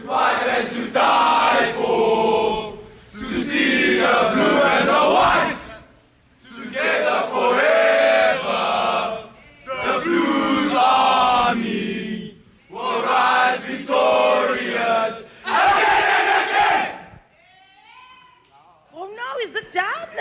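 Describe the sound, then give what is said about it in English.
The Alberton High School rugby team, the Blues, loudly chant and shout a rhythmic war cry in unison, bursts of a few seconds separated by short pauses, ending with scattered shouts. “We are at Alberton High School, and the rugby boys are ready to give us a war cry.”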